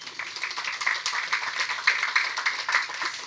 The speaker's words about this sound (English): Big round of applause for Natalie.